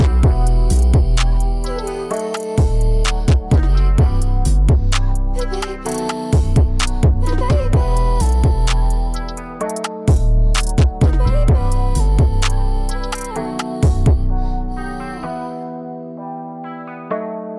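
An instrumental rap outro with heavy, booming bass hits and layered, effects-soaked synth chords under a steady beat, with no vocals. The beat drops out near the end, leaving a thin tone that fades.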